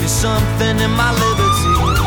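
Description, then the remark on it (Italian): A loud siren wails with a rising then swooping pitch, layered over a dense, steady musical background with no voices. “Cos'è questa sirena”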